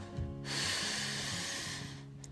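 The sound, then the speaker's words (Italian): A single long, deep breath, airy, drawn in and let out over about two seconds, with a soft sustained musical drone underneath. “Fai un bel respiro profondo.”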